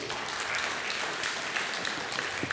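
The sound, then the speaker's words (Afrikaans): An audience applauds the band steadily, a dense wash of many hands clapping at once, moderately loud and sustained without pause, with no voices over it. “Ag gee vir die orkes 'n lekker hande klap toe.”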